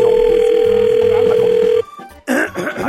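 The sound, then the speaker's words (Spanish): A steady, loud electronic ringback tone from an outgoing prank phone call to a man who just bought a house plays for nearly two seconds, then cuts off; after a short gap, a voice starts talking over a faint line. “Vamos a hacerle como que le esté llamando una grabación”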